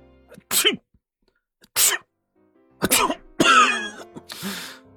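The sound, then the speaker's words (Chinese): A voice imitates a string of sneezes by the character Pang Daxing just after he jumps onto a desk: four or five sharp, breathy bursts, the first ones spaced apart, the last few coming quicker and fuller, with no talking in between. “唉，胖大星摇摇摆摆的走进来，刚跳上书桌就打了好几个喷嚏。”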